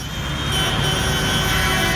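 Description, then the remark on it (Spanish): A loud, steady drone of heavy engines rolls on without a break, deep rumbling harmonics under a broad hiss, as tractors pass one after another in Ciudad Real. No voices are heard. “Y venga a pasar tractores, y venga a pasar tractores, y venga a pasar tractores.”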